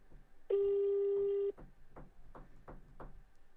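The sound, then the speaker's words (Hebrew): A phone call on speakerphone ringing out: a single steady, mid-pitched ringback tone lasting about a second, followed by quiet line noise and a few short, faint bursts of sound. “כן, יכול להיות שהוא לא יענה, הוא- הוא לא יעלה, אבל בסדר, בוא ננסה.”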